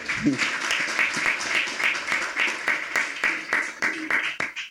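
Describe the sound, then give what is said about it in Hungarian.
A crowd claps steadily for several seconds, a dense patter of many hands with sharp individual claps standing out, fairly loud throughout and fading at the end. The audience is applauding the women of the marketing team. “Tehát álljatok föl, lányok, tapsoljuk meg őket, nincs könnyű dolguk.”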